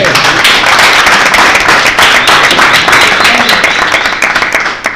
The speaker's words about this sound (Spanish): Muchísimas gracias chicas, muchísimas gracias profesora. Muchas gracias. Eh, la despedimos con un fuerte aplauso.